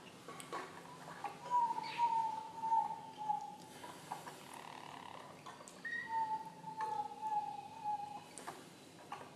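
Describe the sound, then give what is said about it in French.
A Harz canary sings two long, low rolling phrases of deep roll (roulée profonde) song, each a smooth sustained warble that slowly dips in pitch, separated by a brief pause over a faint steady background hum. “face à un stam de Canaris du Harz et un juge-expert en canaris de chant”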